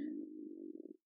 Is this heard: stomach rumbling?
yes